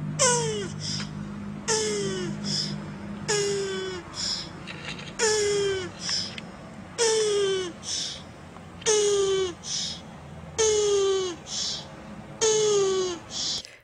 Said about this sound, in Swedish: Nej. Jag ska visa dig. Det är sköldpaddor.